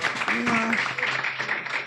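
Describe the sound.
Steady audience applause fills the moment, a dense, even wash of many hands clapping at a constant loudness, with a brief voice rising over it near the start.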